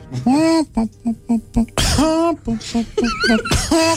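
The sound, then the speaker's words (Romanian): A person does a vocal imitation of a hen coughing: a run of short, pitched clucking bursts broken by a couple of harsher, breathy cough-like blasts, fairly loud. “Care în timpul liber, când nu-i face selfie-uri uh, roșcatului, Tușește ca găina?”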